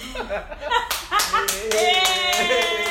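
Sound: hand clapping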